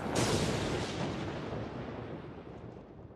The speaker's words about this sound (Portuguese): O crepitar dos raios